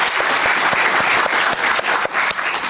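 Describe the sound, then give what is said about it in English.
A steady burst of applause from several people, dense overlapping claps forming a loud, even crackle that holds for a few seconds with no voices over it. “Clap, clap, clap”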